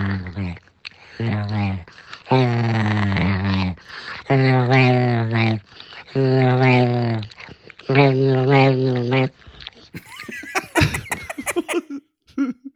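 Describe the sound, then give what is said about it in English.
A 10-year-old, anxious King Charles Cavalier dog makes a string of drawn-out, moaning whine-like vocal noises in several loud bursts, followed by a brief rustly, breathy flurry at the end. “is a 10 year old, says anxious King Charles Cavalier, and makes those noises, I think, is, is what we're meant to get from that.”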